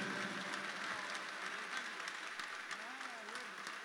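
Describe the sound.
Steady applause from an audience, a dense wash of claps filling the whole clip at an even, moderately loud level, with faint voices murmuring underneath.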